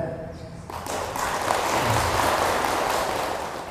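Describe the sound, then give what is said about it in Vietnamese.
Buddhist lay followers at a Buddhist talk clap as a pledge, in dense, continuous applause that swells after a brief start and holds at a fairly loud level throughout. “để vượt qua được cái cái tình trạng nghịch lý này đó thì các quý phật tử hãy dâng cao tràng pháo tay để cam kết”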